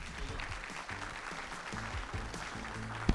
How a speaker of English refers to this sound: Hey, let's stand together. Give Brian a warm uh, applause. We do that.